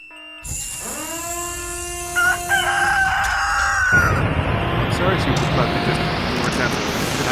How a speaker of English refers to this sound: he's alright. He's a chicken.